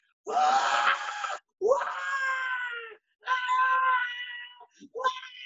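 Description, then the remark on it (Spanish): One voice imitates a theater audience screaming at a kiss between two men: three long, loud, high-pitched shrieks with short pauses between them, then a brief trailing yelp at the end. “La gente gritando, y yo sé porque también está la machanería boricua, inculcada en nuestra cultura que son dos hombres besándose, ¿entiendes?”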